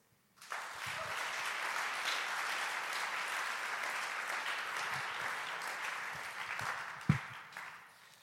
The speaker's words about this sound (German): Danke, Jesus. Applaus für Jesus.